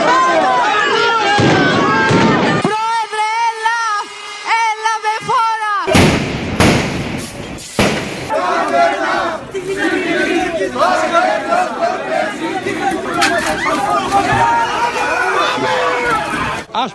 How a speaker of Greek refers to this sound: Συνταξιούχοι άνεργοι και ανάμεσά τους μέλη του ΠΑΜΕ και της ΑΔΕΔΗ συγκρούονται με τα ΜΑΤ έξω από τη Βουλή διαμαρτυρώμενοι κατά του νέου ασφαλιστικού.